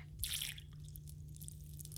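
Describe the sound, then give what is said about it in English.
A short, soft splash of about a half ounce of lime juice poured into a dark rum cocktail, lasting only a moment, followed by near silence over a low steady hum. “Then about a half ounce of lime juice.”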